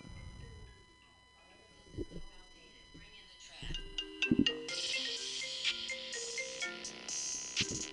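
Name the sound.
phone ringtone playing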